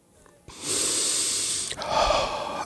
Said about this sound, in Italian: Ha preso respiro? Eh, sì. Sono raffreddato